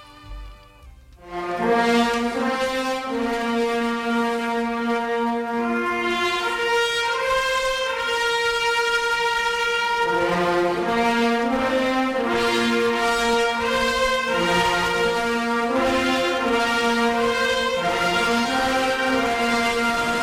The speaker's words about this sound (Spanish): ahí quedó ¿eh? la, música de la agrupación, un homenaje hoy también al Alcalá Real a través de, su gran músico.